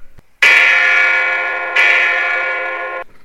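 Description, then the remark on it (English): Two loud, bright metallic bell strikes, the second about a second and a half after the first, each ringing out with a long, slowly fading tone; bells laid on a table and rung with the lights out at a séance. “after the company had been seated around the table in the usual approved manner, and the lights were turned out, the silence was broken by the thumping of a drum the twanging of a banjo, and the ringing of bells.”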